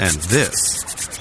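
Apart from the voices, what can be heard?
skin being scratched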